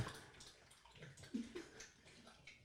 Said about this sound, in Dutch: de hond van Lange Frans bijvoorbeeld om water te gaan drinken tijdens het gesprek